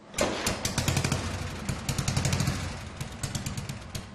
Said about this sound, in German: Am meisten freut sich Kari, wenn seine Freunde die Motorräder starten.